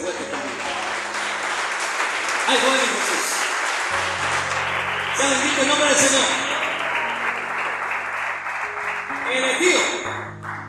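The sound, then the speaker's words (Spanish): A crowd claps steadily in a dense, continuous wash of applause, while a man speaks loudly over it and sustained musical tones hum underneath. “Vamos a que un aplauso aquí”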